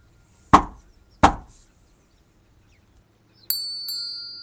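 Two heavy, evenly spaced knocks on the portal door of a monastery, followed after a pause by a bright, ringing two-note chime that lingers. No one speaks.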